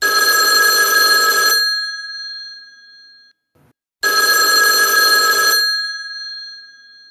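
A telephone in an office rings twice in the early evening, two loud, bright bursts of bell-like ringing separated by a short pause, each trailing off in a fading echo. No one speaks.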